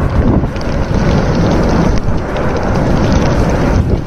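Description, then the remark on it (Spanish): A continuous, loud roar of a lava fountain from the erupting volcano on La Palma, a dense low rumble with steady hissing and occasional sharper bursts, no voices. “Y este es el ruido de la fuente de lava que emana del volcán de La Palma.”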